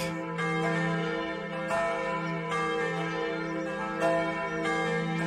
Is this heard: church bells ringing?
yes